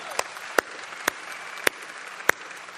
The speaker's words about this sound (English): Now you can applaud. That was good.